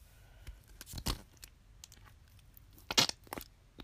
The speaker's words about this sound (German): Vielleicht manchmal furze ich dann nicht. Das hat man jetzt gut gehört. Das war dieser Schleim.